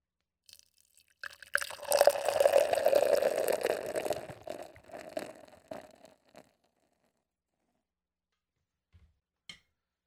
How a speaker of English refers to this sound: let's move into this fucking beer, man. Let's fucking see what we got. Let's go with the pour. Let's do it.